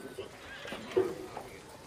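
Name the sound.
horse neighing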